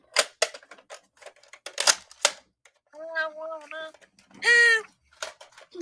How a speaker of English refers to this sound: also, guys, if you hear just random like metallic cl clicking and clacking. That's just me playing with my Nerf gun. I don't you just love Nerf guns?